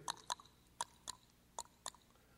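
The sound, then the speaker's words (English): A voice imitates approaching horse hooves with sharp tongue clicks, six in all, falling in clip-clop pairs at a steady trot. The clicks are crisp against near silence, with no talking. “like the horse horses coming or something.”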